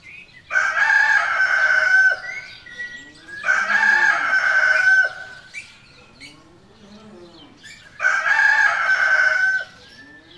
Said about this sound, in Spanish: Lo que acabamos de escuchar es el ecosistema sonoro de campo.